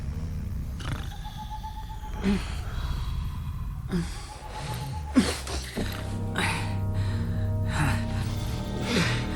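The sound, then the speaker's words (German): Slow, steady, even breathing of two people asleep in a tent at night, soft breathy inhales and exhales repeating every second or two over a low background hum, with an occasional heavier snort-like breath. “Nur Bobs und Justus gleichmäßiges Atmen war zu hören.”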